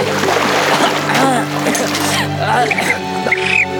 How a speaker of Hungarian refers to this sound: Ne, ne fröcskölj már, basszus, hát bele fröcskölöd a szemembe a kurva sós vizet